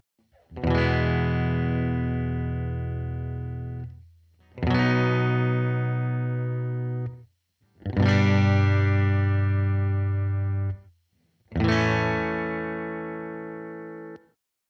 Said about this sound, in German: Du kannst zu Beginn immer dieselbe darüber spielen oder über jeden Akkord eine andere Note. Das ist ganz dir überlassen. Im Beispiel, das du jetzt hören wirst, haben wir eine E-Dur, B-Dur, G-Dur, A-Dur Akkordfolge.